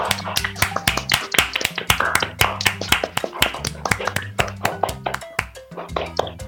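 A crowd claps for Rio Grande do Sul for several seconds, a dense run of sharp hand claps at a brisk, uneven pace, fairly loud throughout with a low steady tone underneath.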